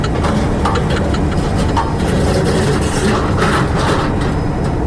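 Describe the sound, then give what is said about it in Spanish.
The propeller engines of a Mexicana de Aviación airliner start and roar loudly and steadily as the propellers begin turning at 7:10 on a grey morning in Mexico City, a dense, rumbling drone with rattling, gritty texture at full strength throughout, with no voices. “A las 7.10 de aquella mañana gris en la Ciudad de México, las hélices de la aeronave comenzaron a girar y sus motores a rugir con gran estruendo.”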